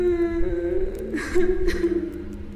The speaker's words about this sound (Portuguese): Tem uma, uma menina assim, ela tá usando um vestido simples é, ela tá abraçando assim os joelhos dela, a cabeça assim tá, tá meio enfiada entre os joelhos e cabelo assim longo, escuro, é, cobre o rosto dela, mas ela tá chorando bastante.